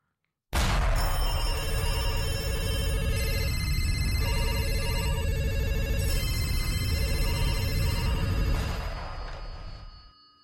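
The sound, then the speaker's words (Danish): A short jingle on the radio station Radio Loud, built around a ringing telephone: rapid, high-pitched bell trills in repeated bursts over a steady, full-bodied backing, about nine seconds long before fading out. “Spil jingle.”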